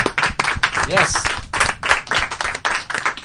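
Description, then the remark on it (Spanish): A crowd at an event at Metro Comics applauds steadily to thank a speaker, a dense patter of many hands clapping at once, fairly loud and continuous throughout, with a few voices faintly mixed in underneath. “Fuerte aplauso para, para pues,”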